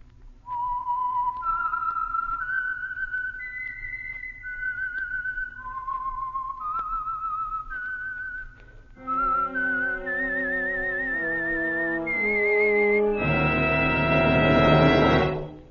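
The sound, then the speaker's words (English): A lone, clear whistled melody, the signature tune identifying the Signal Oil radio program The Whistler, climbs and descends in sustained notes, then orchestral instruments join and swell into a full, loud musical sting at the end. “And for Sunday evening listening pleasure, the signal to listen for is this whistle that identifies the Signal Oil program, the Whistler.”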